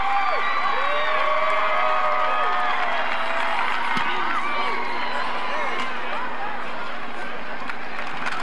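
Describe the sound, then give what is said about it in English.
A college football stadium crowd cheers as Sarah Fuller is about to kick the football, a steady, loud roar for the full eight seconds, countless overlapping shouts and whoops blending into a dense wash of noise without letting up. “You can hear the crowd.”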